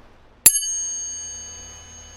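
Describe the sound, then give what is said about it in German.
A single metallic strike on hard disk platters taken out of old hard drives sets off a bright, bell-like ring with several clear high tones, sustaining and slowly fading over about two seconds, alone. “Das sind Festplattenscheiben. Habe ich jetzt mal irgendwann aus Frust aus irgendwelchen alten Festplatten ausgebaut.”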